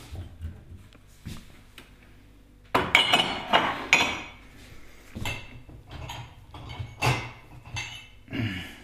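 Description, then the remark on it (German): Glass clinks and knocks together in a quick, irregular series of sharp taps, following a few quiet seconds of low rumble and handling noise. “Glas haben wir hier.”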